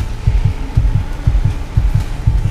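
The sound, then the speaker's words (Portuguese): A fast heartbeat thumps in muffled lub-dub pairs, five double beats in quick steady rhythm over a faint low hum, with no voices: a woman's heartbeat speeding up as she has an anxiety crisis and panic attack. “E como ninguém escutava ela, o batimento cardíaco foi acelerando.”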